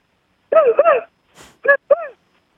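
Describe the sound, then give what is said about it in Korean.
A person on a phone call imitates a very happy, excited dog: a drawn-out double whining yelp, a quick breathy pant, then two short high yips, fairly loud with no other talk. “기, 아, 굉장히 기쁜 강아지?”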